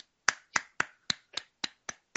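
A run of eight sharp hand claps made near a microphone at a steady, moderate pace as a mock slow clap, each a crisp slap with a quick decay, fairly loud, with no voices over them.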